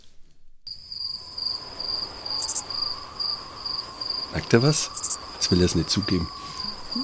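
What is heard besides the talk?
cricket chirping sound effect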